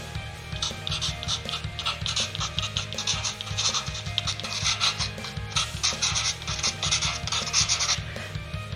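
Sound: pencil writing on paper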